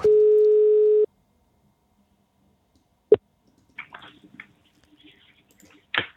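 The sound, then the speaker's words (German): A single steady ringback tone sounds for about a second on a phone line as a call is placed to a foundation, followed by a pause with faint line noise and clicks, then a sharp click as the call connects. “Wir rufen an bei der Stiftung.”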